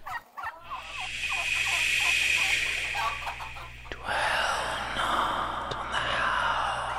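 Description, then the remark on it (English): Several turkeys gobble at once in a loud, rattling chorus of warbling calls, with a fresh burst of gobbling about halfway through over steady outdoor noise. “I've got most of my limbs, and I'm surrounded by surprisingly bodacious turkeys.”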